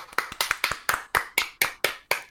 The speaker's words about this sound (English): Yeah, proper uh, proper applause. So should just give them a little round of applause for them. Yeah.